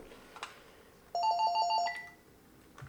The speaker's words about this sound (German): läutet noch das Telefon. Moment schon.